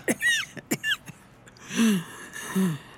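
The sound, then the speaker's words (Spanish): Two sharp coughs come in quick succession from a fatigued woman having difficulty breathing, followed by a pair of strained, wheezy gasping breaths. No one speaks. “La fatiga se ha apoderado de ella y siente dificultad para respirar. La tos aumenta.”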